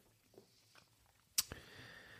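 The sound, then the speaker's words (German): Someone chews cake and chokes on it: faint, soft mouth sounds, then a sudden sharp crunch-like burst followed by a brief ringing tail, with no talking. “Hab mich am Kuchen verschluckt, ja.”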